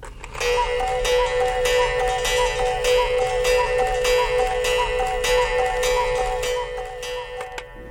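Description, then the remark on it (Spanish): A mechanical cuckoo clock ticks steadily while its two-note cuckoo call repeats over and over in a quick, even rhythm, fairly loud, with no voices. “Y le pusieron un pajarito mecánico a los relojes, un cucú, para que se asomara a dar la hora y a sonar.”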